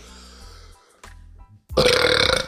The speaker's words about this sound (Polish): O Jezus, jak sobie tego pomyślę, kurwa, odbija mi się orężadą z komunii.